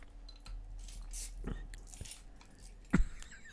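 A beer bottle being opened: small metallic clinks and rattles, then a sharp, loud snap of the cap near the end, with no voices.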